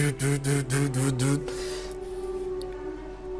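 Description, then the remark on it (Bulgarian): A machine alarm blares in quick, harsh pulses, about five buzzing bursts in a row, then gives way to a steady electronic drone that lingers to the end. “А, машината започва някакви аларми да се чуват в нея.”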